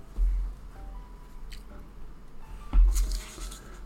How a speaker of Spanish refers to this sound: O sea, si yo dejo caer este lápiz, así, o sea, si suelto mis dedos de este lápiz, se va a caer independientemente que yo diga, nunca más se va a caer este lápiz.